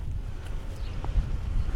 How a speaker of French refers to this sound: Oh, le petit vent frais. Tant que j'avais les mains dans les poches, ça allait, mais là, ça pique.